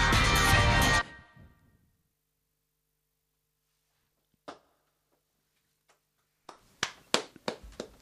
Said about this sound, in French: Ça applaudit bien fort.